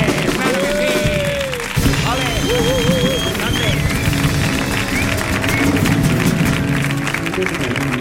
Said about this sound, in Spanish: Pues nada, señoras, señores, por favor, ovación atronadora para doña Pilar Muriel.